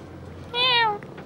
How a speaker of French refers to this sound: Une tache dans mon salon ne fait que bouffer, pense qu'à se faire caresser. C'est un chat.